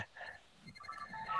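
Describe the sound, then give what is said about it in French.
A phone ringtone chimes in a short, bright melodic pattern of changing electronic tones, fairly quiet, with faint murmuring in the background. “Pardon pour le téléphone.”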